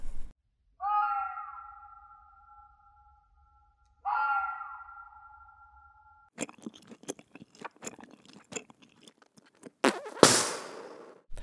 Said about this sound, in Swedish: Det var eh, form, någon form av eh, djur där. Det var ju faktiskt en skällande räv. De skäller, även om jag inte riktigt trodde det.